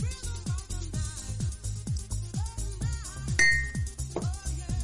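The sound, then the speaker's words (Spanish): A single bright clink of glasses in a toast rings out briefly near the end, sounding over steady rhythmic music with a thumping low beat. “Salud.”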